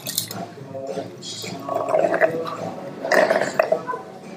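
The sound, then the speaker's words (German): Wet slurping of a drink in two main bursts, with gurgling, sucking noises and short pauses between them, fairly loud and with no one speaking. “Ich schlürfe.”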